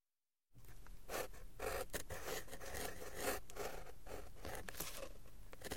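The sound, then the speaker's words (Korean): A pen scratches steadily across paper, continuous, with quick rasping strokes and small pauses between them, in quiet surroundings, as an old man seated at a desk writes in German. “얼마 후 겨우 안도한 표정으로 책상에 앉아 간단히 몇 자를 적어 내게 건네주더니 그러고는 다시 쉬지 않고 종이에 펜을 놀리기 시작했다.”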